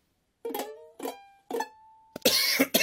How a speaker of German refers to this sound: Warum huste ich jetzt auf einmal wieder? Das Husten war klar.